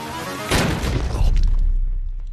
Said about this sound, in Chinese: 炸弹男被厅长激得异常生气，直接引爆了预先装在耳麦里的炸弹。